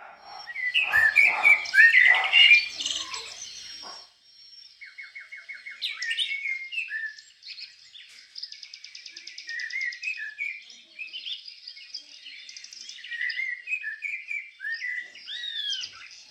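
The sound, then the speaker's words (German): A Eurasian blackbird sings a varied, melodious song of fluting whistles and twittering phrases, clear, with brief pauses between phrases and no voices. “Ha, hören wir doch mal, wie es die Amsel im Original macht.”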